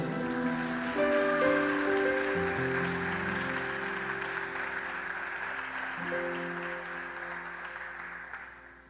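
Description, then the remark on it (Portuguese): Sustained applause from a large church audience clapping in praise to the Lord, a dense wash of clapping over steady music chords underneath for several seconds, slowly fading toward the end. “Quem acredita, quem acredita, quem acredita, se você acredita, erga as duas mãos para os céus e dá a maior glória a Deus que você puder. Aplauda ao Senhor.”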